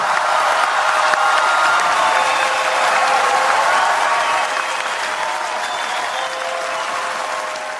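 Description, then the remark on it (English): A large crowd of delegates representing 195 countries applauding steadily and loudly at the moment the Paris climate agreement was adopted, a dense wash of many hands clapping at once with some cheering mixed in, sustained throughout without pause. “Those are the sounds from the moment when the Paris Agreement was struck when delegates representing 195 countries from around the world reached a landmark deal to limit greenhouse gas emissions.”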